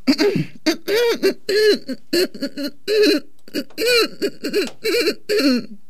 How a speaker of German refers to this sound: Entschuldigung. Ich muss mich räuspern.